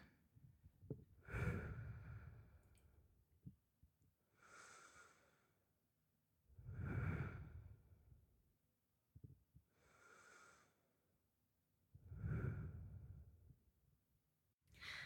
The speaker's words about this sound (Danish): Prøv at lukke øjnene, og så tage øh, tre dybe øh, vejrtrækninger.